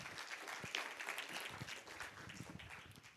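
A church audience bursts into loud, sustained applause for the Lord, dense overlapping claps filling the whole clip with a steady, crackling roar and no break.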